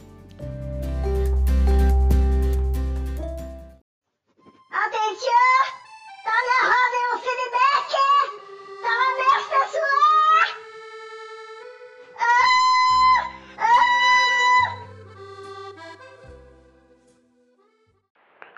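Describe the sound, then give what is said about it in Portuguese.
A quirky jingle opens with a deep rumbling swell, then bursts into squeaky, pitch-bending cartoonish vocal yelps, almost meow-like, in short bouncy phrases over a low bass line. “se você deve estar se perguntando que vinheta maluca é essa que a gente colocou depois da vinheta normal.”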